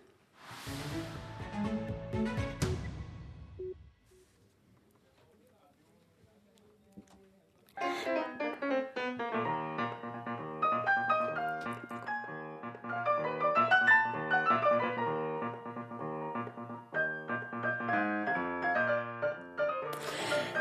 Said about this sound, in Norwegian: Ja, dette er lyden av eh, Beat for beat-pianist eh, Gisle Børge Styve sammen med arvtakeren. For nå er det klart at det er Lars Andreas Aspesæter som overtar eh, pianokrokken etter Styve, som har sittet der i 16 år.